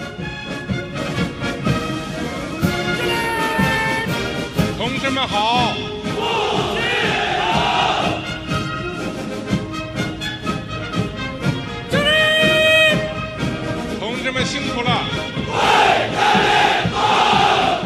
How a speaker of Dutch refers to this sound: Die dan op een gegeven moment iets brult in de richting van de soldaten. En die brullen dan allemaal terug. En dan storten bijna huizen in, zou je zeggen. Want dat is zo'n enorm kabaal.